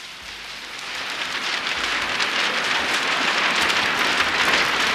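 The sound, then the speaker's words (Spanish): Soft, steady rain patters down in a continuous, even hiss of countless small drops, gentle, with no voices and no thunder. “En la realidad, bajo una lluvia muy suave,”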